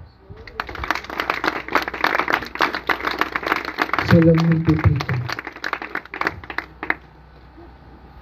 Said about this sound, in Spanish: Dale un aplauso a Dios.